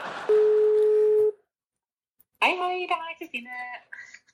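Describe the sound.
A single steady telephone ringing tone lasts about a second over a faint hiss, then falls silent before a voice begins speaking.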